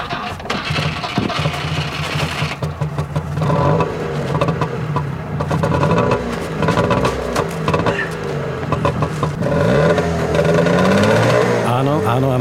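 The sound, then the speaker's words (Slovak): A Trabant car's small two-stroke engine cranks and sputters into life, then idles and revs with a raspy, buzzing, uneven putter that rises and falls, loud and steady throughout. “Typický zvuk. Je to Trabant.”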